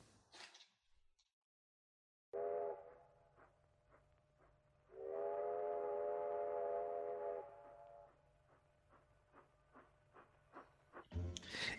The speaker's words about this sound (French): Donc tout de suite, jingle petite phrase et les petites phrases.